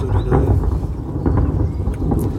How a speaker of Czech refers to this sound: Blíží se nám pěkná bouřka.